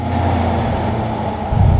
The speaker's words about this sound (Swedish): Den tekniska undersökningen fortsätter tydligen och likaså röjningsarbetet som ni kanske hör här i bakgrunden.